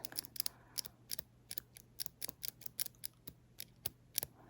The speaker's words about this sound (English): So I've got my beautiful rose gold lash curler.